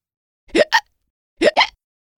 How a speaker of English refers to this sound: Let's hear that again. So, what's that sound? Shout it out. A hiccup. That's right. It's a hiccup. We don't know why exactly people hiccup, but we do know which muscle makes it happen